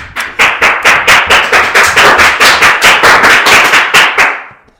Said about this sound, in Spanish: ¿Habéis escuchado lo que acaba de pasar? Y habéis visto con qué energía y con ganas han entrado mis hijos adolescentes a mi despacho, aplaudiendo como locos. Eso es lo que es una distracción humana.